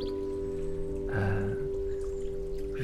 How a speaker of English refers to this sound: got the sounds of the river, the sounds of the birds.